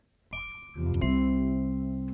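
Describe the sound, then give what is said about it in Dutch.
A phone call's ringing tone sounds clearly as the speaker places a call, a steady electronic hum that starts abruptly, grows louder after a moment and then holds evenly to the end, with no voices. “Ik bel hem.”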